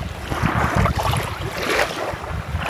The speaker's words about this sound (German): Na, das sind die Wellen am Stolpsee. Also wenn das Wasser so ans, ans Ufer plätschert, ähm, das könnten auch äh, Wellen an einem anderen See sein.